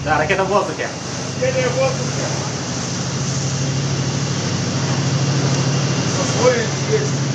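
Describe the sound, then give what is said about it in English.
A Russian test launch of a nuclear missile from a new submarine, the missile rising out of the ocean, heard as a steady, dense roar that holds for several seconds at constant loudness, with faint voices talking underneath near the start and end. “Russia Launches Nuclear Missile Test-Strike on America from New Submarine”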